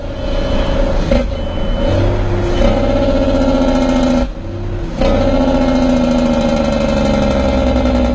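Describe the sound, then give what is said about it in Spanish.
A loud, steady truck engine drones at high speed, around 95 kilometres per hour, with rising and falling pitch bands, briefly dipping midway before surging back up, no voices present. “El nerviosismo invadió a mi padre cuando llegamos a los 95 y el camión comenzaba a perder estabilidad.”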